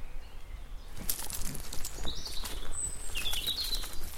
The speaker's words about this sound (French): c'est la fauvette ça qui chantait